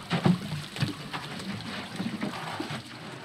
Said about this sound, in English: The women dip large plastic cans into a basin filled with water from a nearby well.